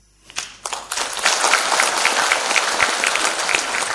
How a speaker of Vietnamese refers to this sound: Ờ, sư nói xong rồi sư lên xe sư đi các em ở dưới vỗ tay à